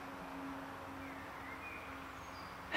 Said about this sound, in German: Hört ihr den Sommer im Hintergrund? Vögeli, der Wind in den Bäumen, die Autobahn. Ich habe das Fenster offen gelassen heute. Ich hoffe, es ist recht, der Sound.